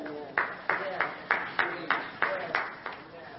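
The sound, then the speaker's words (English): Sparse, half-hearted hand clapping from an audience: about nine steady claps at an even rhythm, fairly thin and not building into full applause, with a faint murmur of voices beneath. “Oh, that got a weak hand clap.”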